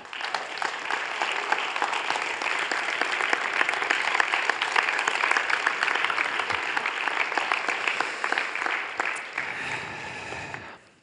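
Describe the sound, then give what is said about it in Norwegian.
Loud, sustained applause from a large audience clapping to welcome a guest, lasting about ten seconds, a dense wash of many hands clapping at once before it tapers off abruptly at the end. “og dere må klappe han fram.”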